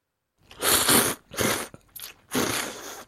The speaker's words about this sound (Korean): 잘 먹는 방송 ASMR 먹방이요. 아 그거 먹는 소리 막 들려주고 그러는 거지? 네, 오빠도 한번 들어볼래요?